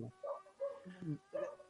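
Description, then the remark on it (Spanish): A dog gives several short, sharp barks in quick succession, fairly faint, with a voice murmuring in the background between them. “Ah, bueno, eso es problema sí, el perro lo escucho. Creo que el perro sale mejor que vos.”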